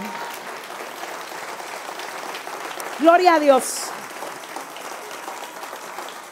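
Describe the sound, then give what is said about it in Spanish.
Steady audience applause, a dense crackle of many hands clapping throughout, with a voice calling out briefly over it partway through. “Pero es para el Señor ese aplauso.”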